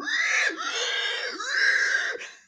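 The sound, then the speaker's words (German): A person imitates a pig's squeal as a joke sound for a car airbag deploying: two long, shrill, wavering squeals with a short break between, loud, fading out at the end. “Und wenn, du, wenn, der, wenn der Airbag aufgeht, gibt es so ein Schwein.”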